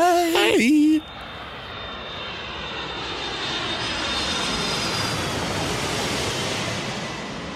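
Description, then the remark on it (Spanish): A voice speaks briefly at the start, then a steady, dense roar of an airplane engine on a short flight to Toronto fills the rest, a constant cabin drone with a faint high whine. “Bueno, gente, ese vuelo fue bien corto pero estoy súper eh.”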